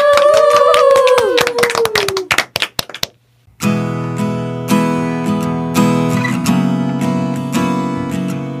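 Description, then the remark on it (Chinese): Audience applause for the performers of a song, a burst of many sharp claps with a voice over it, lasting about three seconds before stopping. After a short pause, steady guitar-led music of the song starts. “对，那我们把最热烈的掌声送给他们。”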